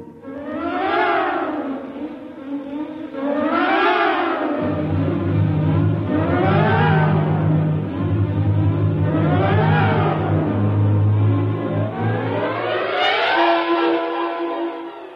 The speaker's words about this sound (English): Somehow the engine coughed and spit us back to the station.